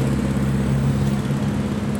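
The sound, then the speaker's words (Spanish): Cars passing on Avenida Basolo in Torreón, a steady, loud engine rumble with a low droning hum that stays constant throughout, with no voices. “Ahorita que terminen estos coches de pasar”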